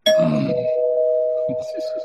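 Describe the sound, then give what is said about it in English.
A single bright bell ding, used as a spoiler warning, rings out loudly and sustains its tone for the full two seconds while people start talking and laughing over the fading ring. “Well, and spoiler bell.”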